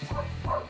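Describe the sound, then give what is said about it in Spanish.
Two dogs' barks ring out in quick succession, a pair of short, sharp yelps from dogs outdoors barking at noise outside. “pido disculpas si se escuchan los videos de afuera, pero se está metiendo bulla afuera, entonces los perros ladran.”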